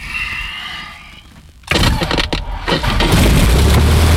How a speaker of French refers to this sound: Au moment où le moteur accélère, il y a quelques phrases qui auraient pu me revenir en tête.